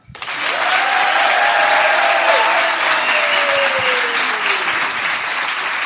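Sustained audience applause at the Kinoteka (cinematheque), recorded with the microphone turned toward the audience, on a Tuesday in September. A dense wash of hands clapping at steady loudness for several seconds, with a faint gliding whistle-like tone sweeping downward through it.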